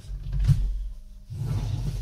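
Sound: drawer being opened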